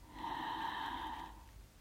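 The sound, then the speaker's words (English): A single long, steady inhale drawn through the nose during a controlled breathing exercise, lasting about a second, fairly loud with a slightly snorting, airy hiss, and no talking. “And it is just simply just breathe in”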